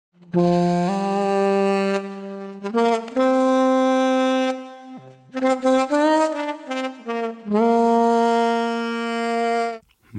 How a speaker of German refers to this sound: Ich habe meine DI-Gitarre genommen, die spiele ich euch gleich vor und gleich danach hört er dann, wie das in Saxophon umtransformiert klingt.